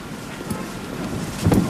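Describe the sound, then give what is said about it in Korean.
Sea wind blows across the open harbor of Mokpo New Port, where many yellow ribbons flutter, a steady low rumble buffeting the microphone with a stronger gust swelling near the end of the brief stretch. “목포 신항에는 세월호 참사 희생자들을 추모하는 수많은 노란 리본들이 바닷바람에 나부끼고 있었고 그 너머 저만치에 거대한 세월호가 보였습니다.”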